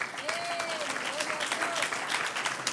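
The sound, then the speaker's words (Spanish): A church audience applauds a group of children steadily, a dense wash of clapping that holds for a few seconds, with a few rising whistles or cheers sliding through the sound. “Un aplauso a estos niños tan lindos.”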